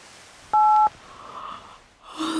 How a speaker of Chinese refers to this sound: 李潇一直熬到凌晨两点才睡觉，第二天还没睡醒，手机就被人打响了。